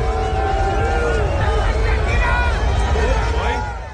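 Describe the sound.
A large crowd roars in a dense wall of voices, with overlapping shouts rising above the din as the noise holds steady and loud throughout, fading slightly at the end.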